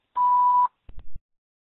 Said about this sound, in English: After the beep, we will return your call.